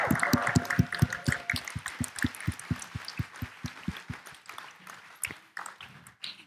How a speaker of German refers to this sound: Und deswegen würde ich sagen, steht's mal alle auf und gibt's der Renate einen Applaus.